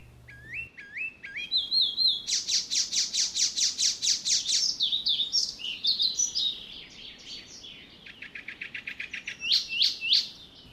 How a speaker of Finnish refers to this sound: Kultarinan laulu on lavertelua, jossa kirehköt säristelyt, vihellykset ja matkinat toistuvat muutamaan kertaan. Rytmi on aina kiihkeä